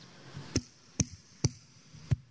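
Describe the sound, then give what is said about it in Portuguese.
Four sharp hand claps, used in place of instruments at a church, ring out alone, evenly paced at first with a slightly longer pause before the last one, each a crisp, bright slap. “Just our hands. Eram só palmas. Like that.”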